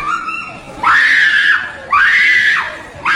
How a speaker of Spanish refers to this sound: Entonces, la morra, ah. la morra grita y brinca, güey, como si o sea, como que le da un ataque de, desesperación, como, ¡ay, te voy a matar! Pero brinca y grita, güey.